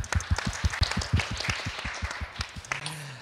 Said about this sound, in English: And once again, a big round of applause for our three speakers today. Thank you.